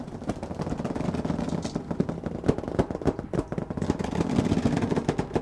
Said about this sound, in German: Ich knie mich hin und versuche mit dem Mikrofon ganz nah heranzukommen an das, was mir die schlafenden Schiffe zu erzählen haben. Niedlich klingt es, das Knarzen und Quietschen, als ob kleine Monster vor sich hin brabbeln.